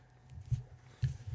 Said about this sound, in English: Pop filter back in. Sorry about the noise, everybody.